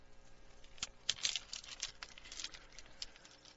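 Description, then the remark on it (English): A dry clatter of small stones trickling and clinking together as an old dairyman pours them into cupped hands, with a busy burst of rattling in the middle that tapers off. “Old Seppo pours them into my hands.”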